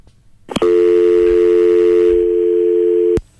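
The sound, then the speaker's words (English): A click, then a loud, steady dial tone on a studio phone line used to dial out hums continuously for about two and a half seconds before another click cuts it off. No one speaks. “I have a studio line here that I used to dial out to TalkShoe”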